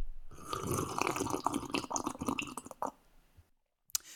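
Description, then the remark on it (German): A long, wet slurping sip of sage tea, made with sage from a home garden, lasting about three seconds, noisy and bubbly, followed by a brief pause and a single soft click. “Es ist Salbei-Tee mit Salbei aus dem eigenen Garten.”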